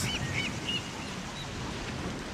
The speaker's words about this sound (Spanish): Escucha el verano. Las olas